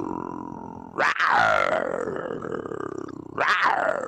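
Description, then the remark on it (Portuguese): TV presenter Gilberto Barros roars loudly twice, imitating a big cat: a long, rising-then-falling growl followed by a second forceful roar starting, dominant with no other talk. “Dá um rugido aí, Gilberto, dá um rugido.”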